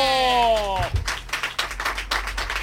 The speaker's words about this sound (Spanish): ¡Viva las palomas! el primer aplauso que nos llevamos por cantar. y el último.